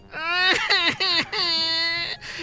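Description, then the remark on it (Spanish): A voice imitates a wife crying, with wavering high-pitched wails broken into several short bursts before a longer drawn-out cry, loud. “Y abre la puerta y encuentra a su esposa Mari llorando.”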